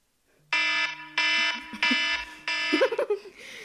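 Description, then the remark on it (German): A phone timer alarm rings in four loud, evenly spaced bursts of a bright, buzzy electronic tone, each about half a second long, followed by brief muffled noises near the end. “was ist so eigentlich jetzt Klingelton?”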